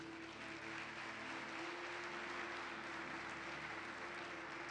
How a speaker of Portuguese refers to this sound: Dê uma salva de palmas a ele.